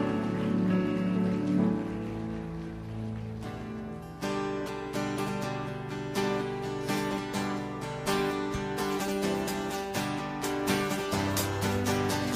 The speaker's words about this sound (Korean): 우리 정말 사랑의 주님께 영광과 감사의 박수 올려드리시겠습니다.